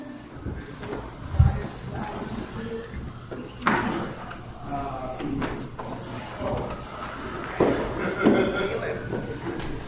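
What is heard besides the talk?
door being shut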